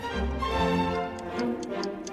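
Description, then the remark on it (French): A clock ticks in a steady, even rhythm, each tick crisp, layered over a low sustained musical drone that fills the background. “Au premier coup de l'horloge, le vieil homme attrapait sa canne au second coup, il enfonçait sur son crâne un vieux chapeau haut de forme.”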